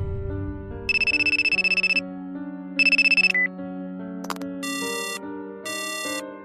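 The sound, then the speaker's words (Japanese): A newly bought mobile phone rings with an incoming call on the night of 3 September 1999, its ringtone a bright, looping electronic melody with repeated pulsing bursts of high tones over a steady bassline, loud, with no voices. “1999年9月3日の夜、買ったばかりの彼の携帯に電話がかかってきた。”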